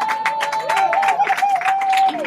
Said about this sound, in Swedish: En stor applåd.